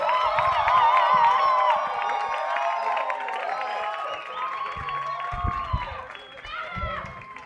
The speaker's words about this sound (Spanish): Fuerte el aplauso para el siguiente comediante de la noche con ustedes en este escenario